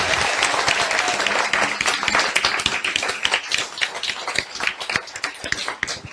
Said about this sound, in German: Ja, darf ich zuerst einmal einen Applaus für die Beantwortung der Frage?